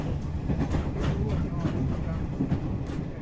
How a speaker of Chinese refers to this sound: 而且我的火车来了，赶快上车。